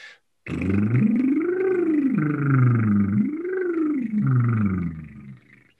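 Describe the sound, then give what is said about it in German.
A voiced lip trill, done as a voice exercise, buzzes steadily for about five seconds, imitating a motorboat, its pitch sweeping up and down twice like a siren. Loud, and with no one talking. “Motorboot. Auf einem Ton oder ja.”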